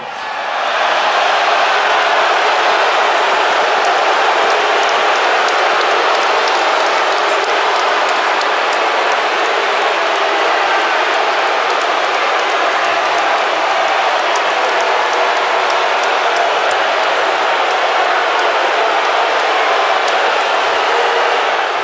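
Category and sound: crowd, arena crowd roaring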